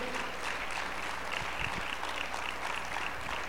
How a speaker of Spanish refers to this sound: Aleluya, aplaude fuerte.